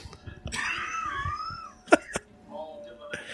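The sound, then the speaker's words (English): Two quick, sharp coughs coming right after a drawn-out, wavering vocal sound, with quieter murmuring in the background. “You may be making me cough.”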